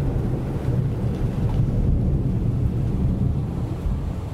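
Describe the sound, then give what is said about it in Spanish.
A steady, heavy storm rumble with a dense wash of rain, deep and continuous throughout, with no distinct breaks or voices. “Cuando comenzó a llover y llegó la tormenta, parecía que incluso el cielo se había convertido en una de esas cosas.”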